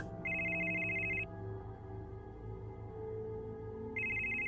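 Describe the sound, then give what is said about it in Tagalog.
A mobile phone ringtone from an incoming call at 7 in the morning chimes in two bright, electronic bursts about three seconds apart, sitting over a steady low musical background with no voices. “Alas 7 pa lang nung umaga noon kaya sa sobrang antok ko ay isang mata ko lang ang nagawa kong buksan para silipin kung sino ba yung istorbong tumatawag sa akin.”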